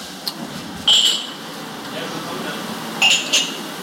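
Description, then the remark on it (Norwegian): Drinking glasses clink as they are stacked in a dining room, two short bright ringing clatters about two seconds apart over a steady background hum. “Her stables det glass.”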